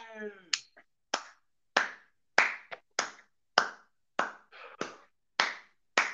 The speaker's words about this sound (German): Da schneide ich Applaus rein, wenn ich Lust habe.